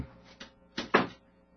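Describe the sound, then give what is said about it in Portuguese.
A door is handled: someone opens it, pauses and closes it again. There is a soft click, then a pair of quick knocking thumps as it swings shut. The sounds are fairly quiet, and no one speaks. “Levantou-se e chegou até a porta. Abriu-a, parou e”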